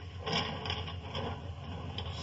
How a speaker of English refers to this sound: Now, if you'll help me draw the bars, Watson. Yes, with pleasure. Well, there you are, Holmes.